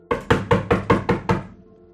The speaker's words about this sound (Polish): Dobra, ale, ale przecież ja bym otworzył przecież jakby i, i do, dopadam do drzwi po prostu. Mhm. Stukasz z całych sił drzwi.